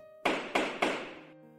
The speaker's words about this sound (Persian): ناگهان صدای جکش سکوت اتاق را شکست